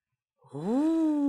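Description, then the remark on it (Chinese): A voice imitates a wolf blowing hard at a little straw hut: one long, breathy 'whooo' that starts low, rises in pitch and holds steady, fairly loud and alone after a brief silence. “狼真的吹起来了”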